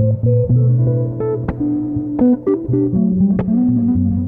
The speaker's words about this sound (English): Big breath in, all the way up, holding, squeezing, squeezing, getting ready to release with a hum.